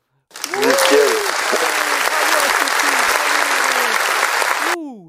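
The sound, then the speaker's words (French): A recorded applause sound effect: a burst of loud, dense clapping from a crowd, sustained for about four seconds with some cheers and whoops mixed in, then cutting off abruptly. “Il y a eu des petits applaudissements”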